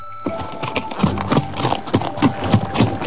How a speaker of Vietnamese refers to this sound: bỗng nghe tiếng gió ngựa dồn dập trên đường cái một người phi ngựa chạy như bay tới